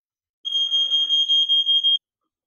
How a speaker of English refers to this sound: They they knew what match was coming. The fire alarm knew what match was coming up.